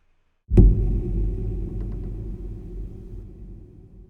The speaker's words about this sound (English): So I recorded the piano, but not a piano note, but actually just the pressing of the pedal